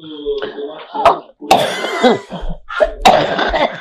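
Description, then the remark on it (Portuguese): A woman coughs several times in rough, harsh bursts spaced across a few seconds, with a brief stretch of voice at the start and loud bursts throughout, in a voice message being played back. “Não tivemos a tosse, vai.”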